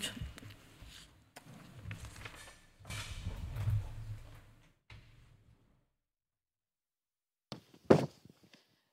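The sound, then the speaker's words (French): Footsteps shuffle and thud across the floor for several seconds as a person walks over to sit down beside a group of women, then stop; after a pause, a couple of sharp knocks and a soft bump follow, like someone settling into a seat. “Je vais aller m'asseoir à leur côté.”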